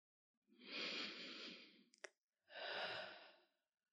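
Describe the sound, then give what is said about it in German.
A deep, audible breath out, long and breathy, followed by a brief click and then a second slower exhale, with no talking. “Atmen.”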